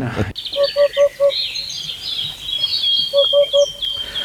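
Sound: hoopoe call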